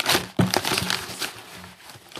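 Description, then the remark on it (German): Crinkly rustling of a bag being handled and opened, with a few sharper crackles and bursts of plastic noise over a couple of seconds, no voices. “Soll ich die Tüte aufmachen?”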